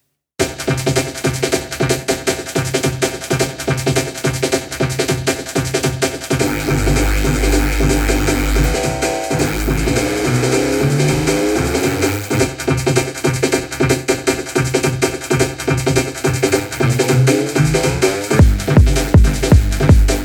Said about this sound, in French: en fait c'est peut-être un genre de vocodeur sur les drums. Je pense, je pense qu'on peut s'en rapprocher en tout cas avec un vocodeur. J'ai testé et si vous voulez voir, euh, ça sonne comme ça.